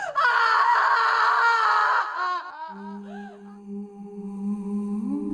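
A girl lets out a loud, piercing scream for about two seconds on the 25th floor of a thirty-storey building, then it breaks into fainter wavering cries as a low, steady drone takes over.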